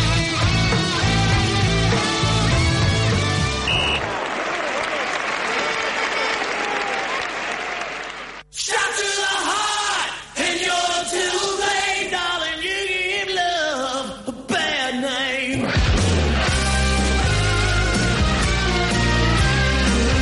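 A loud rock song plays on its own with heavy bass and a full band sound, dropping out briefly midway before the driving groove kicks back in.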